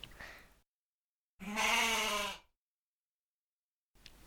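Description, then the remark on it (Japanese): A single loud, quavering goat bleat from the video game Goat Simulator, lasting about a second, on its own, framed by short bursts of soft background noise and silence. “ヤギすげえな。こんなにヤギ強かったんだ。ヤギ舐めてはいかんぜ。”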